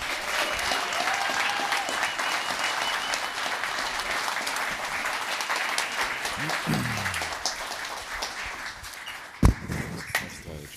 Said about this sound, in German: Einmal noch bitte kurz Applaus für das Siegerteam.